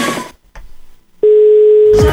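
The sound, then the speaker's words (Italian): A steady, single-pitched telephone call tone sounds loudly for about a second after a brief burst of music and a short pause, then blends into noisy sound at the end. “La chiamata, la chiamata.”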